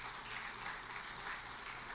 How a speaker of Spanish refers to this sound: Dale el aplauso a Dios y te atreve.